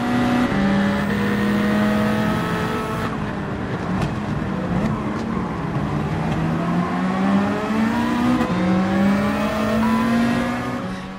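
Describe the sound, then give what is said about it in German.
Racing video game car engines roar continuously, their pitch climbing and dropping through gear shifts as several cars rev at high speed, loud, with no talking. “Und auch dieses Geschwindigkeitsgefühl bei den Rennen, das kommt in VR viel besser rüber.”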